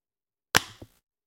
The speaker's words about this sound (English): This is the sound. I'm going to try to mic it. This is the sound of my case attracting or my phone attracting the magnet. Here we go.